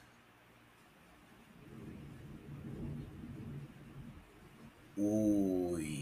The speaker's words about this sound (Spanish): Un relámpago.